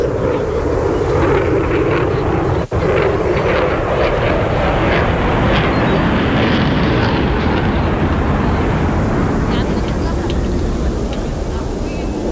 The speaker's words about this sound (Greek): άλλο ένα πέρασμα από μαχητικό αεροσκάφος πάνω από, το, από τον Ιερό Ναό του Αγίου Δημητρίου.